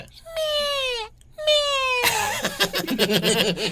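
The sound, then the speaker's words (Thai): A voice imitates a kitten crying for its mother, meowing twice: two long, high-pitched mewling calls with a drooping pitch, fairly loud, followed by a burst of lively voices and laughter. “ร้องหาแม่อย่างเงี้ยเหรอ ก็ลูกแมวไง ก็ร้องแบบนี้แหละก็แมวแมวเหมือนกันแหละครับ แต่ว่าตัวใหญ่เล็กนิดนึง”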